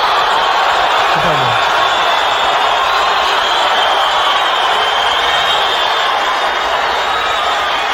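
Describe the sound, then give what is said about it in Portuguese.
A large festival audience booing loudly and continuously, a dense, roaring wall of crowd noise that fills the whole stretch without letting up. “Para vocês que continuam pensando, que me apoiam vaiando.”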